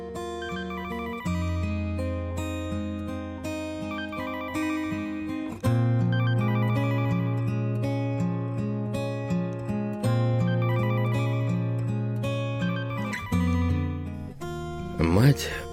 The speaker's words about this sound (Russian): Телефон дочери зазвонил снова.